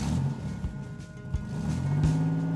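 A car engine rumbles steadily, its low drone swelling slightly as the vehicle drives on, with no voices over it.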